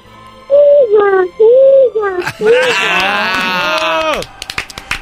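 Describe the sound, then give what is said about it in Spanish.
A child's voice imitates a horse when asked to, with a few short falling calls, then a longer, strained whinny, ending in quick tongue clicks like clopping hooves. Fairly loud. “¿Puedes hacer el ruido de un caballo?”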